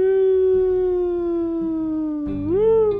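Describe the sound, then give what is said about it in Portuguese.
A siren wails in one long, loud tone that holds steady and sags slightly before swooping back up near the end, with no talking over it. “Sirene? Certeza que era o som de sirene.”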